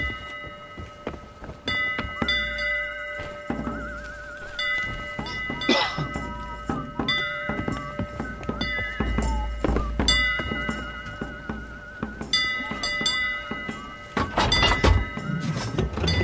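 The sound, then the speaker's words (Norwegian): A ship's bell rings as an alarm with sustained, shimmering metallic tones that hang throughout, mixed with repeated knocking thuds and clattering bangs at moderate loudness, with no one speaking. “Hör skeppsklockens den klang.”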